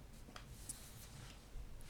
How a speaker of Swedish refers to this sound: Men du, nu när jag sitter här och bläddrar av den andra papper